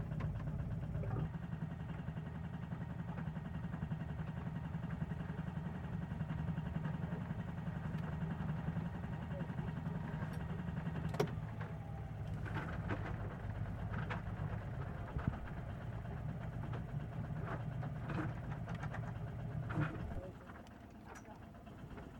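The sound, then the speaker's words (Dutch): A boat engine runs at a steady, low idle in reverse gear, droning with a few scattered knocks and clicks, then its hum drops away abruptly near the end. “Ja, hij draait, hij draait.”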